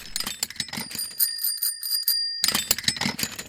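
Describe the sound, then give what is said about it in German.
Bicycle bells jangle and clatter as a customer waiting for her repaired bike rummages through them in a cardboard box at a bicycle shop in Bonn, with a bright sustained ring in the middle and busy metallic rattling before and after, fairly loud. “Eine zufriedene Kundin wartet auf ihr repariertes Rad und wühlt währenddessen in einem Karton mit Fahrradklingeln.”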